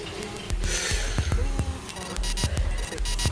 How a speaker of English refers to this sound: We're about to put the central heating on soon. Right, so this is the sound of filling the central heating with water. And we're still at zero bar. We've got like an eighth of a bar.